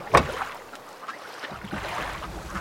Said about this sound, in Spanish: sube a un bote que lo lleva hacia el mar.